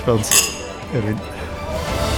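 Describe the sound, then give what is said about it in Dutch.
Glasses clink together in a toast in a café in Mechelen, a bright ringing chime near the start, with people talking over and around it. “Ik stel voor dat we hier eh, een glas opdrinken.”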